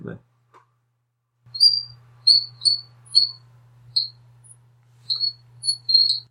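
Song of a Southeast Asian frog of the genus Gracik Salis, made of short, high, bird-like chirps, about ten of them in uneven bursts, heard over a steady low hum with no one talking.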